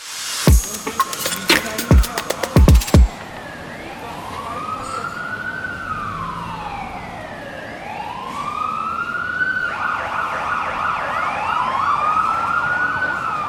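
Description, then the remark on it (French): Busy city street ambience in Melbourne with traffic rumble, a burst of sharp clicking or rattling at the start, then wailing sirens rising and falling, growing louder and overlapping as emergency vehicles approach. “l'ambiance de ville que vous entendez derrière moi, c'est celle de Melbourne.”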